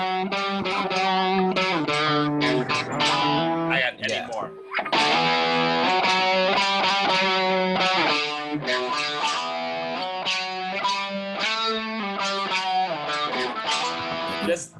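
A heavy metal guitar riff with thick, distorted sustained notes and chords, loud and steady, briefly pausing partway through before the riff resumes and keeps driving to the end.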